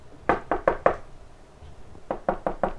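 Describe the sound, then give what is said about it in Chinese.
Two bursts of four sharp knocks on a front door, evenly spaced and fairly loud, with a short pause between the sets and no talking. “哎，门口有人敲门。”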